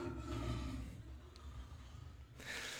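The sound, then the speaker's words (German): A lion roars with a deep, rumbling growl that swells and then fades, followed by a brief breathy rush of noise near the end. No one speaks. “Es ist das Brüllen eines Löwen.”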